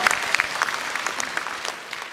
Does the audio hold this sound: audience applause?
yes